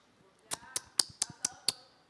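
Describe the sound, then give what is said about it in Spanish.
Six crisp, evenly spaced slaps of women hand-patting flour tortilla dough in the background, a quick steady clapping rhythm at moderate volume with only faint hush between beats. “Oyes a las viejas donde están aplaudiendo ahí al fondo así.”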